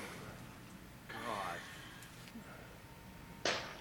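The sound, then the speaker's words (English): A watermelon cracks between a woman's thighs with a single sharp, wet-sounding snap near the end, loud, after a brief whooshing rustle and quiet background noise. “That is the sound of a watermelon cracking between the beautifully thick thighs”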